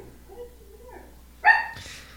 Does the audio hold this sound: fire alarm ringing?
no